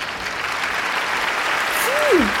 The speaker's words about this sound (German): Bitte klatschen Sie nicht, das ist mir unangenehm.